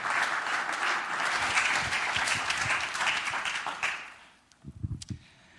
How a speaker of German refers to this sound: Ich würde sagen, wir geben dir mal einen riesengroßen Applaus. Wir freuen uns auf euch.